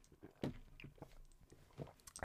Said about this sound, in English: Just having a sip on my drink.